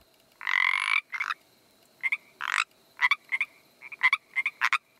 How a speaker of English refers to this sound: What about the Pacific tree frog?